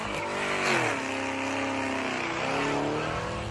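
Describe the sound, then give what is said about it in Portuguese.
A luxury car's engine revs hard and loud, its pitch rising and falling in sweeping arcs as the car spins through tight doughnuts on the streets of Brasília, Brazil, with no talking. “O dono compartilhava nas redes sociais vídeos como este, em que ele dá cavalos de pau.”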